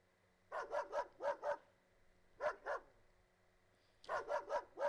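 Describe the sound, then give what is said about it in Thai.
A dog barks in quick, yappy bursts: a run of about five barks, a short pair after a pause, then another rapid flurry, fairly clear against a quiet background with no talking. “ได้ยินเสียงไหมครับ เสียงอะไรครับเสียงน้องหมานั่นเองนะครับ แต่ว่าไม่ใช่น้องหมาผมนะ”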